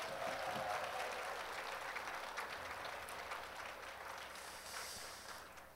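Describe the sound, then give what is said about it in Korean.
Steady, sustained applause from an audience at a gospel Christmas festival for a small vocal ensemble after its hymn, a dense crackle of many hands clapping at an even level throughout, with no one speaking over it. “우리 3호 중창단을 위해서 다시 한번 뜨거운 박수 부탁드립니다.”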